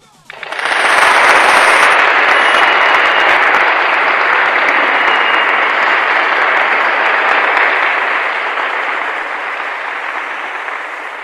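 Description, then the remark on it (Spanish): Loud, dense applause from a crowd on Bata CM Radio, following a recited poem, bursts in abruptly and holds steady for about ten seconds, a continuous crackling wash of many hands clapping, easing only slightly toward the end. “¡Aplausos, por favor!”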